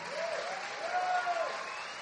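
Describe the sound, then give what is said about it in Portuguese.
A church audience applauds the name of Jesus in a steady, dense wash of clapping that holds at an even level throughout, with a faint voice briefly rising above it. “Aplauda o nome de Jesus.”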